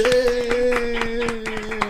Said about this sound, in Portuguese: Cadê as palmas, gente?